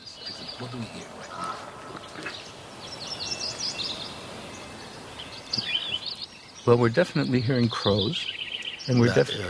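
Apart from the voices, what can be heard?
crows calling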